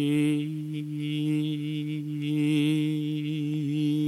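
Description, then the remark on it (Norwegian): A single voice sings a bright, sustained 'ee' vowel on one steady pitch for about four seconds, alone, with slight shifts in tone color but no break; a voice exercise working with thicker and thinner vocal folds on the same tone. “Og det snakker hun ganske mye om, men hun jobber også å gjøre, å gjøre det på samme tonen. At det er i, i, i”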